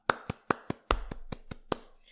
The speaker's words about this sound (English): DeFi cannot discriminate and cannot cheat. And ultimately, that is the future of finance. And I feel like that deserves a clap.